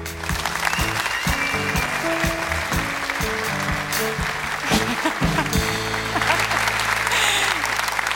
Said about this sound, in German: Und das ist dein Applaus, liebe Jana.